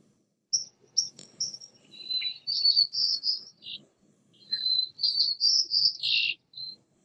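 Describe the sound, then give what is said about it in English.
White-crowned sparrow song, two clear renditions of high whistled notes running into buzzy, trilled phrases, fairly loud against a quiet background with no talking. “Here's a white crowned sparrow.”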